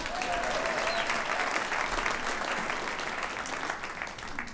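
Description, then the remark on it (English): Steady, dense applause from an audience for a band fills the whole stretch, a broad wash of many hands clapping at once, loud and sustained before tapering slightly toward the end. “Let's hear it up for ….”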